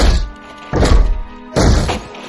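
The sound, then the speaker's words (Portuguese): Three heavy hammer blows strike a wooden support beam in a cave, knocking it out, each a loud, dull thunk with a ringing tail, spaced evenly about three-quarters of a second apart. No voices. “vocês começam a detonar as vigas.”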